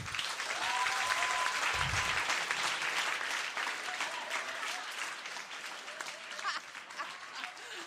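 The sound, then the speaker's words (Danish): Sustained applause from an audience, a dense crackle of many hands clapping steadily for several seconds, loudest at first and easing slightly toward the end. “Nu må I gerne klappe.”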